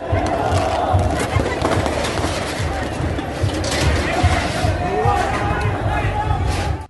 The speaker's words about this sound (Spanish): Lo que acabamos de escuchar son los gritos de los hinchas en el Estadio Monumental de Santiago en Chile. Previo al encuentro de los equipos de fútbol Universidad Católica y el Colo Colo, colapsó una estructura del techo en la tribuna cordillera